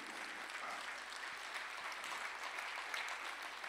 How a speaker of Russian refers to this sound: Дай огромные аплодисменты Господу.